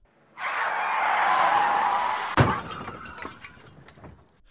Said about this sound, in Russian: Вскоре Боншейкер напоролся на огромную ледяную глыбу, которая от удара развалилась пополам.